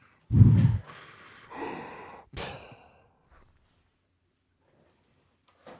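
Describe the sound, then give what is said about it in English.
A voice imitates heavy, mechanical-sounding breathing: a loud rasping inhale followed by two hissing, breathy exhales, then near silence. “Sounds like you're That's- breathing through a microphone.”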